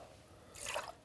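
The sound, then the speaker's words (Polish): A brief, quiet splash of liquid, a measure of 40 of lemon juice being poured into the middle of a cocktail shaker, lasting about half a second with no one speaking. “I wlewaj sobie do środeczka.”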